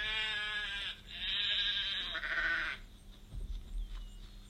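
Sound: sheep bleating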